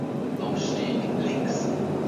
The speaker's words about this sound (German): 585 Kilowatt Antriebsleistung hat die Reihe 481, acht Wagen in Rot und Ocker, bis zu 100 Stundenkilometer schnell. Nach dem langen Teilstück auf Dämmen und in Einschnitten taucht der S-Bahn-Zug in den Tunnel unter dem Berliner Zentrum ein.